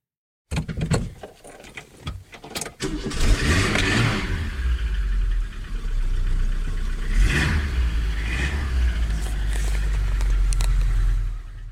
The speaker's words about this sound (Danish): Du hører nu lyden af en opstart af en bil, som Mark engang har ejet